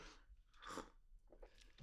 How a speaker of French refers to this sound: Tu prends une petite gorgée avant de commencer Prends une petite gorgée de café avant de commencer.